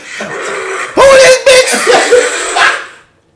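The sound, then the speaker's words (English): A voice imitates a silverback gorilla with loud grunts, huffs and snorting bursts, a few rough pulses strung over about three seconds before cutting to silence. “I know there's brothers out there that got a silverback gorilla that's in their ear while they sleeping and they sound like this.”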